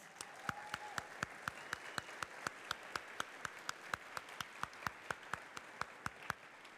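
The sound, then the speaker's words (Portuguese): A church audience applauds its volunteers, with sharp claps landing in a steady, even rhythm over a continuous wash of crowd clapping, holding at a moderate level throughout with no voices. “Você pode aplaudir os nossos voluntários.”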